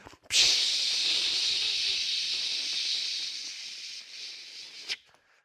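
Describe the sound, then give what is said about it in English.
A single long hiss of an aerosol spray can, bright and steady for about four and a half seconds, starting abruptly and cutting off with a small puff at the end. No voices. “And you know, at Highway Church, we, we have cans of de religification spray. So you keep that handy when you're reading the Bible.”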